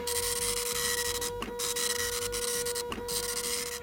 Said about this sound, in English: Oh, and I hear Carl printing out the first question.